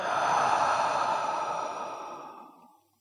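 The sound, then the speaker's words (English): A long, audible breath out through the mouth after a deep breath in through the nose, breathy like a slow sigh, gradually fading over a few seconds into silence. No one speaks. “Again, slow in and with sound out.”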